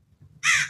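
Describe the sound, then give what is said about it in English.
A single harsh crow caw, loud and raspy, rises suddenly over a low background rumble and holds for a moment. No one speaks. “right now there's some birds chirping in the background”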